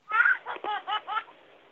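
A short burst of high, bubbly baby laughter, four or five quick giggling pulses, clear and heard on its own with no talking: a message notification tone for a message arriving in an inbox.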